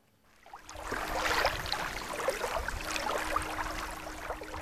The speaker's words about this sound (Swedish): För tillfället är det ganska lugnt här vid Sibboviken. Det enda som hörs är vågornas skvalpande och just kör det här också en motorbåt förbi men i övrigt är det lugnt och stilla, inga fiskare syns till.